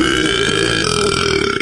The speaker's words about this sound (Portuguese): Ela disse que adora disse que adora rotar depois de comer mortadela.